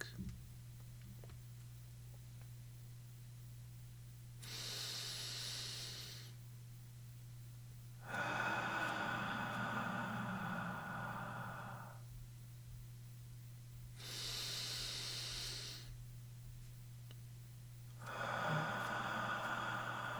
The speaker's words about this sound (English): This pace is conducive to relaxation. We'll take a total of four breaths. You can breathe along with me if you'd like.